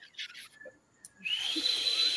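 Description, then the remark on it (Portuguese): Breathy, airy blowing in short puffs and then a longer hiss, with only a thin, wavering whistle tone struggling through: a failed attempt at whistling, with no talking. “Eu não sei assoviar, porra.”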